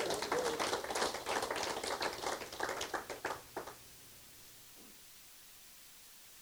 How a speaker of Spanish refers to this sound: Aleluya. Dale un aplauso a Jesús por eso.